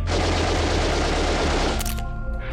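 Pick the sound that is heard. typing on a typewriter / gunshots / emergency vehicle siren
gunshots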